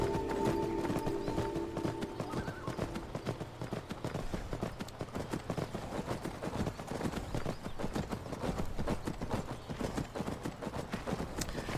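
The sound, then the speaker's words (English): Horse hooves clip-clop steadily throughout as a horse is ridden down steps, a regular run of sharp knocks like a horse walking at a brisk pace, with a faint tonal hum in the opening seconds. “We're going to ride, since the horses came up these steps, we're going to ride down the steps.”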